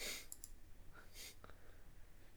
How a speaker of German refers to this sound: Leute, Tastaturgeklacker ist echt nervig.